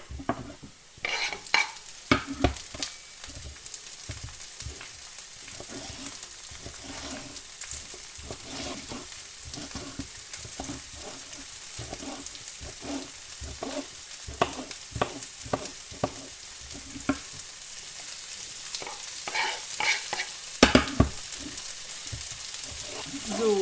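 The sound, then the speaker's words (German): Bite-sized pieces of bell pepper sizzle steadily in a hot pan as part of a filling, with a spatula scraping and stirring in frequent irregular strokes. No one speaks. “Die gebe ich in meine Pfanne für die Befüllung noch mit rein.”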